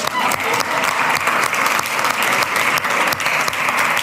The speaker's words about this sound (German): So gut. Applaus.